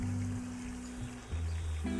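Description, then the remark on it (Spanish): Water flows steadily in a stream, a continuous rushing wash. Low sustained musical tones hum underneath and shift pitch a few times. No one speaks. “y mirar pasar los pensamientos que me abruman y que me rebasan, un poco como la corriente de esta agua que estamos escuchando.”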